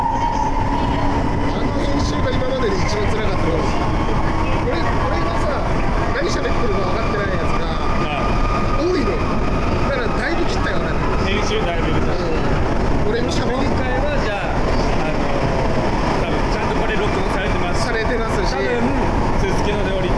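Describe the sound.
Loud, steady rumble inside a moving car of the Sapporo Municipal Subway Namboku Line in Sapporo, Hokkaido, with a rising electric motor whine running through it as the train speeds up; muffled voices murmur underneath.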